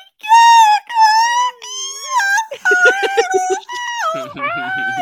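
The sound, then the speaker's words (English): Someone imitates high-pitched squealing with their voice: a loud run of wavering, sliding whines and yelps, one after another with barely a pause, dipping lower toward the end. “it's like squealing sorry, noises. Sorry if you have dogs.”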